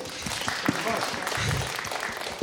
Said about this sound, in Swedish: Fantastiskt, applåd för dig!